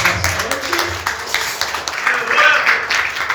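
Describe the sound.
An audience applauds steadily, dense clapping filling the room at a fairly loud level, with scattered voices calling out beneath it.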